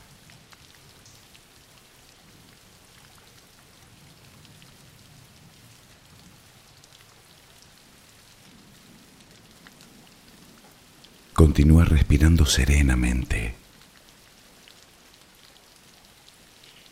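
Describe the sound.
Steady rain falls throughout as a soft, continuous hiss of drops with no breaks, and midway a calm voice speaks briefly over it before the rain carries on alone.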